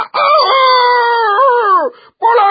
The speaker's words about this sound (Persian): خروس بالای درخت رفت تا اون بالا بخوابه قبل از اینکه خوابشون ببره خروس از بالای درخت فریاد زد